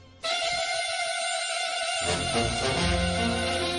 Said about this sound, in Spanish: Imaginen a un niño que le pregunta a su padre, papá, ¿cómo suena el Hollywood clásico? Pues hijo, el Hollywood clásico, el Hollywood dorado, suena así.